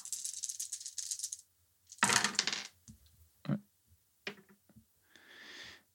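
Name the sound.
dice being rolled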